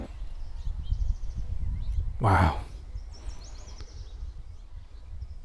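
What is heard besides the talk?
wild birds singing outdoors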